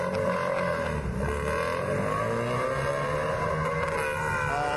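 A car engine's exhaust roars loudly and steadily at a race track, a dense rumbling drone with rising and falling harmonics that holds for the whole stretch, with no voices.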